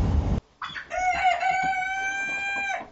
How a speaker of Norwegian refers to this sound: jeg må få tak i en hane nå. Av en eller annen rase. Eh, helst en, en da. bare for å holde på det rene. Men uh, hva som helst går. Og da kan jeg samle egg og eh, legge til ruging og eh, få bygd opp denne her eh, hønsestammen min. Sakte, men sikkert.